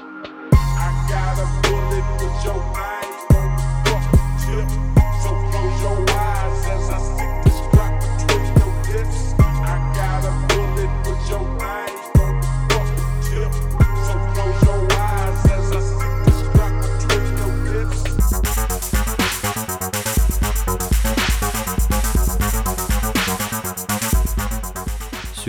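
A hip-hop track from 2019 loops soft synthesizer keyboard notes sampled from another piece over deep, pulsing bass and crisp drum hits, then shifts into a denser, busier texture near the end. No voices.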